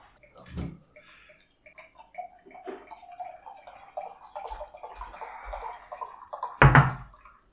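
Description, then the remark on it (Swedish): Stout beer poured from a large bottle into a glass, a steady gurgling trickle lasting several seconds, framed by a short knock near the start and a louder clunk near the end. “Men du kan hälla upp det.”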